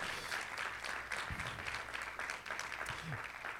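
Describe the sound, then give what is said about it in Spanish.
Sustained applause from a crowd giving a strong hand clap to the Lord, Jesus, a dense, steady wash of many hands clapping at once, with a few faint voices calling out beneath it. “Give the Lord a strong hand clap.”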